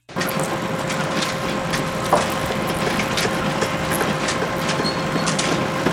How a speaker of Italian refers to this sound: Sentite questo baccano? È il rumore delle trivelle, il petrolio ha fatto la fortuna dei Rockefeller